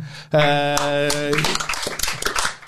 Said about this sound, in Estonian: ma tahaks tänada kõiki neid inimesi, kes kohale tulid otse loomulikult, äh, suur aplaus teile iseendale, aitäh.